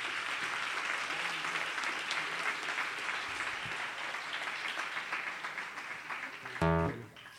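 A concert audience applauds a young performer steadily, a dense, even wash of many hands clapping for several seconds, ending with a brief loud voiced outburst as the clapping fades.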